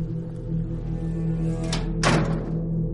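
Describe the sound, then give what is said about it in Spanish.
A door shuts as people leave after going down the stairs: a single dull thud, preceded by a faint click, against a steady low background hum. No one speaks. “Bajaron las gradas, sonó la puerta y simplemente se fueron.”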